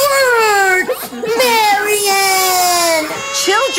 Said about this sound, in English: Well, there are a lot of them, and somebody's always crying.